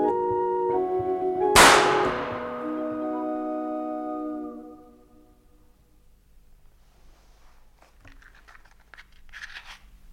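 A single sharp starting-pistol crack rings out loud over the sustained melody of a barrel organ, which fades away soon after, leaving only faint rustling noises.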